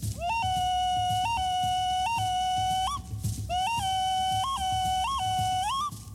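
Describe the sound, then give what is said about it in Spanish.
A four-tone donut ocarina plays a simple melody of pure, breathy whistled notes that step between a few pitches, steady, with a brief pause midway and no talking. “Aquí tenemos una ocarina dona, conocido como dona, igual de cuatro tonos.”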